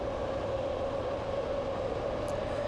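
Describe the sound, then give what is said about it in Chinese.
A BART subway train running through San Francisco's Transbay Tube between Embarcadero and West Oakland stations: a loud, continuous roar with a steady, piercing whine held throughout, with no voices. “您现在在背景听到的是旧金山的跨湾隧道 Transbay Tube，也就是 BART 这个地铁系统，在 Embarcadero 和 Oakland 的第一站 West Oakland 之间的声音。”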